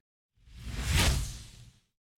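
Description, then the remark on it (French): A single whoosh transition effect swells up from nothing, peaks sharply in the middle and fades away within about a second and a half, airy and full-bodied with no voices. “vous avez entendu la transition de malade Attends, je te la refais.”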